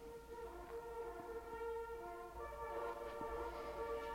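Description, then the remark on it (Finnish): A horn blows one long, steady note with rich harmonics for the changing of the guard, held at an even loudness for the whole stretch, with no voices and only a faint low rumble underneath. “No, taitaa olla vartiovaiho aika, kun torveen puhaltavat.”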